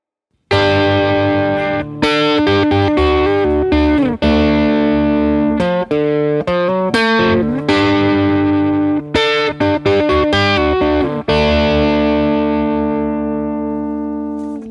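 A loud, distorted electric guitar plays a hard rock riff of crunchy chords struck in choppy bursts, ending on a held chord that rings out and slowly fades. No one speaks.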